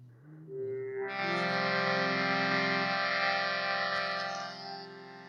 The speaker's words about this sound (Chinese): 我们现在听到的声音呢？是印度手风琴的声音，然后我们会用这个很简单的声音来带大家一起有一个诗歌